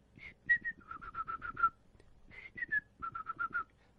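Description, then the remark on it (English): A person whistles an imitation of the tweeting call of a bird that would start around five o'clock, twice over: a couple of higher notes followed by a quick run of five or six lower chirps, clear. “There's this bird that would start tweeting, uh, not tweeting like on Twitter.”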